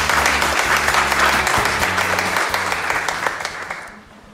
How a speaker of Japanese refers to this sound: どうぞ大きな拍手お願いいたします